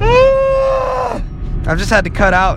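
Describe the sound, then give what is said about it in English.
A long, voiced yawn rises and falls for about a second, fairly loud, then a person starts talking right after it. “that was a yawn, by the way”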